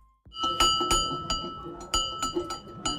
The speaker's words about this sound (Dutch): Maar de ruim 100 jaar oude schoolbel blijft nog wel even luiden.